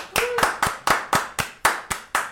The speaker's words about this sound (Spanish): Un aplauso para el primer episodio de la segunda temporada.